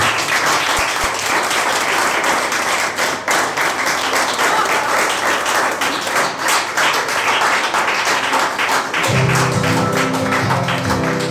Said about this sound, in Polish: Dobra, to tak długo bijecie brawo, że nam jedna piosenka już musi jakąś czas.